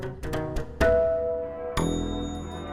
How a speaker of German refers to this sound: Samstagnachmittag in Deutschland. Die Kirchen läuten den Sonntag ein, rufen die Menschen auf, die Arbeit ruhen zu lassen und den ersten Tag der Woche durch Gottesdienst und Gebet zu heiligen.